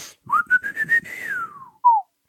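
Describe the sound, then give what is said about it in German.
Someone whistles, imitating a sound effect: a few quick pulsed notes climb into a long sliding tone that falls away, then one short downward whistle, with no talking. “So ein, so ein Pfeifen”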